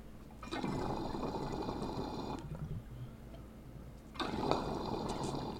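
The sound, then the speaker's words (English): Loud rushing water, a large volume of it draining fast, gushing and gurgling down a drain, a broad churning roar that eases briefly in the middle before surging up again, with no voices. “And that drain, that's an aggressive drain. Like it's draining so fast, but there's so much water in it that it takes a while for it to fully drain out.”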